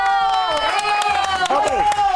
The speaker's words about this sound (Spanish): ¡Aplausos!